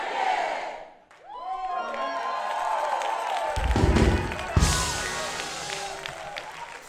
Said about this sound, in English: But that thing, everybody shout that thing. I want to hear you shout that thing. No, you got to say it like a church.